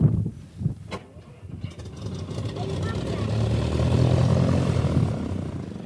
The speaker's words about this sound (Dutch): Hebben jullie het gehoord, jongens? Vertellen jullie eens waar hoorde dat geluid bij? Mijn vliegtuig.